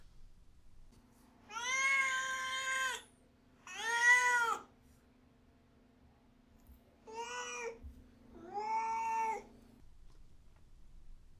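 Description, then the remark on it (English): A cat named Duarte meows four times in two pairs, drawn-out, tonal calls with a pause in the middle, clear over a faint steady hum, with no talking. “Um, okay, now it's time for Duarte's Corner, where my cat Duarte gives his opinions about the book.”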